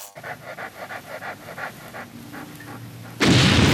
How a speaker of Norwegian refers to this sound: skal vi høre den psykisk utviklingshemmede golden retrieveren Silkesvarten, som leter etter landminer i Afghanistan.